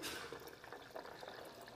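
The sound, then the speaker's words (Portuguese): Boiling water pours steadily over dry, unsoaked cashew nuts for a couple of seconds while making cashew milk, a continuous splashing gurgle with no talking. “Olha, eu coloco a castanha aqui, ela não está de molho, está sequinha. Estou usando água quente, água fervendo.”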